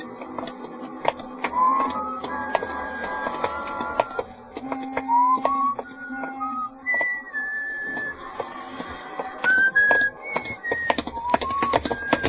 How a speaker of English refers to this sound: It was on my day off and sort of late at night, and I was just walking along the street, not going anywhere in particular or even thinking anything much, just sort of whistling to myself and walking along the street.